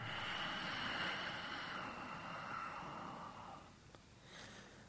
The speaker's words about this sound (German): Und atmet wieder aus und erzeugt wieder diesen Hauchklang.